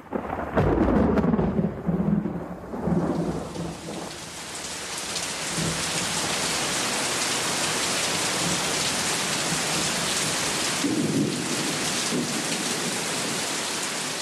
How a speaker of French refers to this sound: en Normandie, on peut passer en un instant du soleil à la pluie, d'un horizon bleu à un ciel menaçant. L'orage gronde et la pluie s'abat désormais sur la plage de Quiberville.